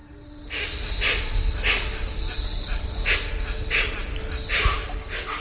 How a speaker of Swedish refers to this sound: Den femte eller sjätte dagen hörde hon ett väldigt bekant ljud. Det var en speciell typ av fågel som kallas för huatzin. Det är en fågel med ett väldigt distinkt läte. Den låter så här.